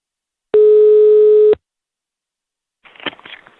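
A single steady one-second ringback tone sounds loudly on a phone line as a father places a call, followed by a pause of silence and then a brief, muffled voice as the call is picked up.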